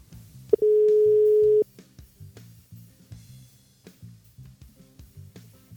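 A single steady telephone ringing tone sounds for about a second, a flat mid-pitched beep heard while a call is being placed to someone in Åsa, over a quiet rhythmic music bed.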